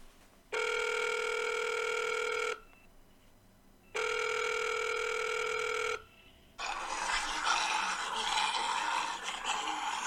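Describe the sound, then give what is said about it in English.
Two steady electronic telephone rings on a news call-in line, each about two seconds long with a pause between, followed by a burst of hissing line noise as a caller's call connects. No one speaks. “Let's go to the phones and see what people are saying in the area.”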